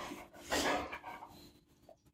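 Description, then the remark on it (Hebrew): A dog being trained to lie down on command makes breathy, snuffling sounds, with one stronger huff near the start followed by softer panting and small noises. No one speaks. “בואנה מגיל חודשיים אני עובד איתך כלב, מגיל חודשיים אני, מגיל חודשיים אני עובד איתך על פאקינג ארצה, תעשה ארצה.”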